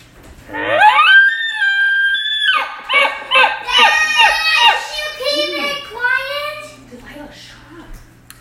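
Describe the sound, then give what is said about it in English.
A child's high-pitched voice in a family house lets out a long, sustained call, then breaks into a quick run of loud, sing-song syllables, as if chattering excitedly during play. “We've got the whole family in the house. Okay. I'm trying to do a show. Can you please be quiet?”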